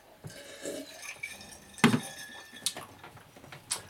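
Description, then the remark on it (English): Clattering kitchen sounds as someone gets out a glass of water: a few sharp clinks and knocks of glassware or dishes being handled, with a louder clunk near the middle and lighter taps after, no talking. “I actually gotta get this water out.”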